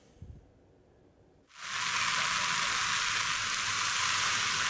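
After a second and a half of low, quiet rumble, a heavy rain downpour in İzmir, Turkey abruptly sets in as a loud, dense, steady hiss that continues without a break to the end.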